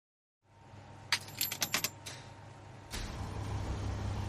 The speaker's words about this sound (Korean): 마지막 동전을 기계에 넣고 세탁기가 돌아가기 시작하면 소음 안으로 몸과 마음을 서서히 밀어넣는다. 일정한 기계음, 물소리, 커졌다가 작아졌다가, 덜컥 멈추다가 다시 흐르는 물소리.